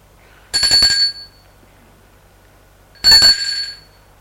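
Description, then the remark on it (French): A house doorbell, rung by a woman who has come through the door leading to the courtyard, rings twice, each a bright, metallic ding lasting about half a second, with a pause of a couple of seconds between them. No voices are heard. “Et elle va sonner à la maison”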